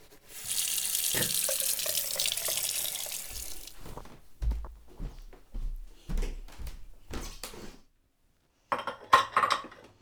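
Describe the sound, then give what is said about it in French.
A tap gushes steadily for a few seconds while someone brushes their teeth with a plastic toothbrush, then shuts off, followed by clicks and knocks at the sink and a short final splash of water. “Je me brosse les dents avec une brosse à dents en plastique”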